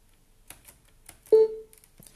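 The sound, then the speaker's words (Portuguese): A few soft key clicks as Insert plus Space bar is pressed, then a single short, clear electronic beep from a screen reader, fairly loud, with a brief tail fading out before another light tap. “Pronto, insert barra de espaço, ouvi o bip e agora com as setas, a seta para baixo eu vou uh, até ao corpo do texto.”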